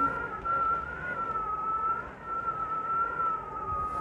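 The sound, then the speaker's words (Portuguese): A steady, high whistling howl of wind squeezing through the windows of a home, holding one wavering pitch over a low rushing roar that swells and eases slightly, with no voices. “Aqui em casa a gente fala que as janelas estão uivando.”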